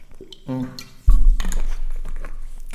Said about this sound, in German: Ich muss erst einen Schluck Wasser trinken gerade.